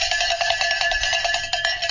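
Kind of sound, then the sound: signal or alarm, bell being rung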